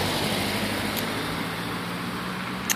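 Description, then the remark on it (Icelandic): Steady roar of a car on Bergstaðastræti, a nearby city street, a broad constant rumble with low engine hum and a couple of brief sharp clicks, no voices. “hérna heyrum við í í rauninni sko bænum við bak við okkur bílunum á Bergstæðastræðinu fyrir fram Þannig kemur þetta bíl sem tröflaði það hjá mér”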